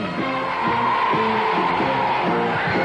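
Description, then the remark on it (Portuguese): An audience applauds steadily for about three seconds as the first young man is called onto the stage of a show, a dense, continuous wash of clapping mixed with cheering voices and whoops rising and falling over it. “Olha só quantas palmas pro Edson.”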